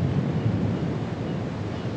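Steady rushing surf and wind roar on an empty beach in winter, a dense low rumble that holds constant throughout without distinct breaking waves or pauses, with no voices present.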